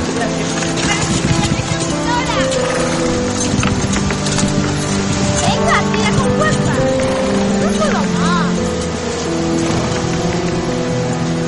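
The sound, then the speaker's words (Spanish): Steady clopping of horse hooves as horses pull two sleighs carrying sick people, over a dense, busy background of layered tones and movement, continuous and fairly loud throughout. “Más tarde los enfermos van en dos trineos tirados por los caballos.”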